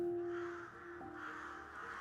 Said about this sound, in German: Ja, langsam wird es still hier an der Isar. Es ist dunkel geworden. Hunderte Krähen sitzen hier auf dem Baum Sie haben ihren Schlafplatz gefunden und sind bereit für die Nachtruhe in der Gruppe. In der Gemeinschaft fühlen sie sich sicher.